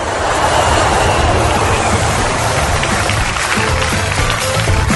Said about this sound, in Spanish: Por eso los colombianos aplaudimos cuando aterriza el avión.